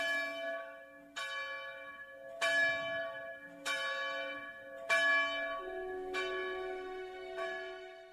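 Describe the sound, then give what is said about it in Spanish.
Church bells ring out in a steady sequence of about seven strikes, each a bright, resonant clang with a long ringing decay, loud, with no voices. “Los frailes se durmieron tan profundamente que no escucharon las campanadas.”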